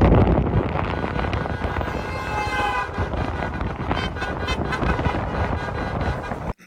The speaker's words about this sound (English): that honking, those lights, that is the sound and the sight of freedom